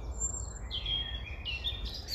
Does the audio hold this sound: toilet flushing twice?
no